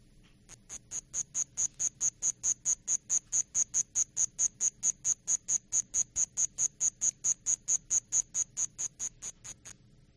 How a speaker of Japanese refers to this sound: これはまたなんか鳥のような、はい、あの面白い鳴き方、はい、なんか鳥鳥のさえずりっていうかな、はい、字字がずっと続くんですけど、うんうんはい、あの田んぼコオロギって言いまして田んぼコオロギ、はい、名前の通りこり田んぼ寄りに近いとこちょうどあの、まあ、稲あ失礼あの苗を植えはる頃に、はい、あの田植えされる頃にちょっと泣いてるっていう感じかもしれませんけど。